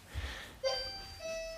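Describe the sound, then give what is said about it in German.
A doorbell rings with a bright two-tone chime, a higher note struck first and then a lower one, both ringing on clearly amid otherwise quiet surroundings. “Jetzt klingelt es auch noch.”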